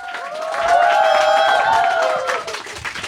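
A crowd applauds with a dense, steady patter of clapping, mixed with sustained whooping cheers that swell early and hold for about three seconds before thinning out.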